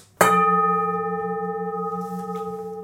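A porcelain gong from a porcelain factory is struck once, sharp, then rings on with a steady, slowly fading tone and a gentle pulsing shimmer for a few seconds, with no other sounds.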